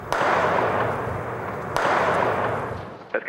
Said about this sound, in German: Ganze hatte sich in der Nacht zugespitzt, als etwa um 20 nach 4 deutscher Zeit Explosionen gefolgt von Maschinengewehrfeuer zu hören war. Eine gute Stunde geht das so.